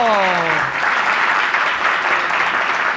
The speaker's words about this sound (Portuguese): Uma salva de palmas pro senhor